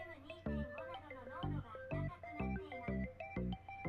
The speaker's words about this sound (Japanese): あの、すいませんね、加湿器が喋りました。加湿器じ空気清浄機が喋ったんですけど、あの、ありがとう。これ、喋るやつダメだな。